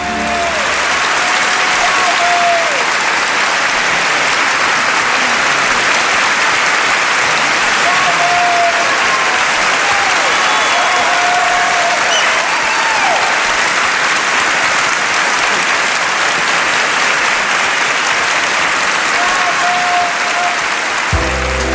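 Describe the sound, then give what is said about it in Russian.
Loud, dense applause from a full hall standing for Charlie Chaplin at the Oscars rolls on steadily for the whole stretch, a continuous roar of many hands clapping together without letting up. “Когда объявят выход Чарли Чаплина, весь зал встанет и устроит Чарли пятиминутную овацию, доведя его до слез.”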